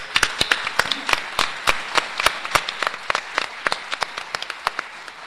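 A small group applauds, with sharp, irregular handclaps rising from a steady bed of clapping and dozens of distinct claps over about five seconds; no one speaks.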